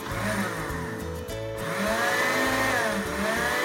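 A blender whirs loudly and steadily, its motor pitch shifting as the blades chop and purée coarsely cut onion and tomato into a cooking base, with no one talking over the continuous grinding drone.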